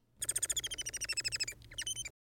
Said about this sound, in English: Here's a real Bengalese finch